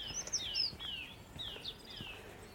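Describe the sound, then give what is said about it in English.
A song thrush sings in a remote spot near a restored cottage, with bright repeated whistled phrases and quick chirpy notes over faint outdoor background noise and no voices. “see if I can get a bit close to that song thrush.”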